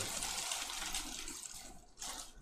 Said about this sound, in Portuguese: Agora eu tô ouvindo a chuva. Agora tá, tá farta a chuva, velho.